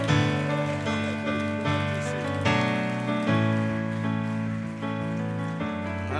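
Steady audience applause in the Anchor Church, clapping for a boy, a dense wash of many hands clapping, over sustained organ-like chords that change every second or two, loud and continuous for the whole stretch with no speech.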